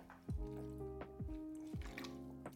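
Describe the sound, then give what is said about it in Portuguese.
A person drinks water for an irritated throat, with three wet gulping swallows in a slow, uneven rhythm and soft liquid sounds between them. Nobody speaks. “Tenho, tenho aqui água, então vou beber.”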